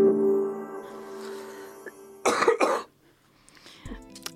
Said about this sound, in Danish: Velkommen tilbage, med et host.